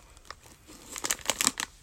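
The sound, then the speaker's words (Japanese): Crisp, brittle crunching from biting into popcorn-sized crunchy edamame rice crackers, a few faint bites first, then a dense burst of sharp, crackly chews that grow louder toward the end, with no talking. “いただきます。って言って口に運ぶ。”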